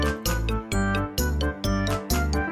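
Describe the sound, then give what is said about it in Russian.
Small bells on the skirt of a white-and-red embroidered sundress jingle as the wearer twirls. They ring in a steady rhythm, six bright shimmering bursts in quick succession with a ringing, tinkling tone. No voices are heard. “Бело-красный сарафан с вышивкой А юбка квакая Ой, с колокольчиками Я кружусь и звеню”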